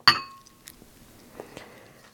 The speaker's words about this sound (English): I'm going to move the bowl with the rice out of the way. Then you're supposed to pour a little soy sauce over it here. So I'm going to do that now.